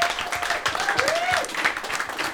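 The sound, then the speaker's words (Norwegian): An audience claps steadily for a couple of seconds, a dense, continuous patter of many hands at an even level, with a faint tonal whine drifting through the middle. “Vi gir dem en applaus.”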